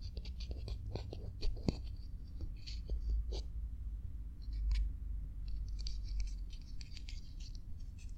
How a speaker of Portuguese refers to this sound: São as unhas a raspar num ovo, ainda cru.